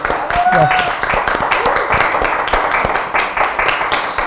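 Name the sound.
applause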